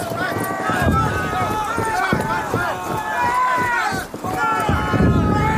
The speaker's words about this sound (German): 5.05 Uhr. Sie rennen los.